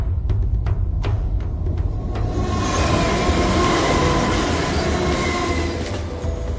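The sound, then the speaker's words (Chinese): A train rumbles past on the railway through Edinburgh that divides the Old Town from the New Town, with a heavy, continuous low roar, overlaid by rattling clicks and a faint metallic squeal of wheels, holding steady before easing slightly at the end. No one speaks. “其他的城市呢通常都有一条河流，这座城具有一条铁路，轰鸣而过的列车将其画成泾渭分明的老城和新城。”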